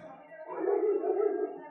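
A dog howls in a steady, drawn-out wail that swells after a soft start and holds for under two seconds, moderately loud, with no talking.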